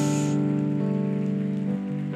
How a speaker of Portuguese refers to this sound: Fica de pé e aplaude, aplaude, aplaude, aplaude, aplaude a Deus.